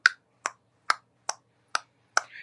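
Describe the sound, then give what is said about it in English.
Six crisp, evenly spaced tongue clicks, a mouth imitation of the ticking clock in Jim Henson's short film Timepiece, keeping a steady tick-tock rhythm with nothing else around them. “where the whole thing was uh, a ticking clock, you know, and it just”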